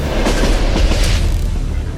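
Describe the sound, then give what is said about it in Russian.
A train rumbles and clatters along the rails with rhythmic clickety-clack beats over a heavy low-end roar, loud, with no voices: the personal armored train of North Korean leader Kim Jong Un, travelling to Russia. “Глава Северной Кореи приедет в нашу страну на личном бронепоезде.”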